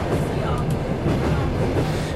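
A night train from Baku, Azerbaijan to Tbilisi, Georgia rumbles steadily along its rails, a dense low-frequency roar with a faint rhythmic clatter, continuous throughout, with no voices standing out above the noise.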